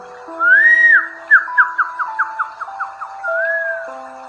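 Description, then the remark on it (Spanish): Whistled birdsong imitation: a swooping whistle, then a quick run of about nine short chirping notes, and a final rising-falling whistle, all clear over soft sustained background tones. “Los pájaros cantan.”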